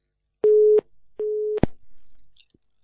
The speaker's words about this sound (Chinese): 挂掉，嗯，电话断掉